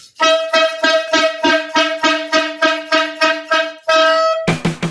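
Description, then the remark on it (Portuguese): A loud, bright horn blares in a rapid series of about a dozen short rhythmic honks, then a longer held blast, ending with a brief lower-pitched horn burst. “Eu quero continuar com essa discussão mas antes eu tenho para vocês uma corneta aleatória.”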